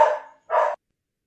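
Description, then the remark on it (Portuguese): A female dog barks twice, fairly loud: a first bark that trails off, then a shorter, sharper second one after a brief pause. Silence follows, and no one speaks. “Galera, perdão pela cachorra.”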